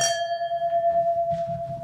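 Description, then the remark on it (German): A single clink of wine glasses touching in a toast rings out sharply and leaves a clear, high bell-like tone hanging for a couple of seconds over low background rumble. “Oh, jetzt kann man gar nicht richtig anstoßen.”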